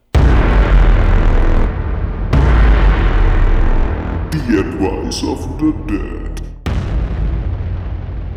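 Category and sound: sound effect, explosion sound effect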